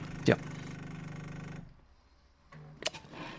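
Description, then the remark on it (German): An automatic espresso machine's pump hums steadily with a sharp click, cuts out for about a second, then buzzes back on with another click, pulsing in short bursts at moderate volume while brewing a 35 ml espresso at low temperature, with the grinder set one step finer than factory setting. “Man hört hier auch, dass die Maschine anders taktet.”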